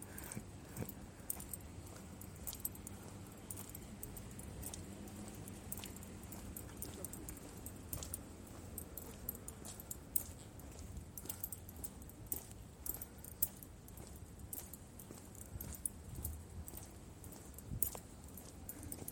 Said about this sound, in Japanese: えー、今あの後ろからなんか自転車の音が聞こえたんで、もしかもしかしてと思って見たら、全然関係ない、大丈夫だ、大丈夫でした、一般の方でした。